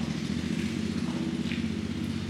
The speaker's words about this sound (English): I'm going to wait for this motorcycle to go by.